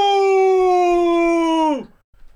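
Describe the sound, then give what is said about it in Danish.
A single voice imitates a live audience booing a performer: one long, loud, steady "booo" held for well over a second, its pitch sliding sharply downward at the end before cutting off. “Men de buer af dig? De buer af mig.”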